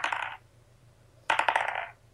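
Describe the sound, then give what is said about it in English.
Dice clatter across a tabletop in two bursts during a tabletop role-playing game roll made with disadvantage, coming up 17 and 16: a short rattle, a pause, then a longer run of sharp, bright clicks that tumble and settle. No one speaks. “uh, Gordo, uh, rolling disadvantage because he's still poisoned, throws another chair.”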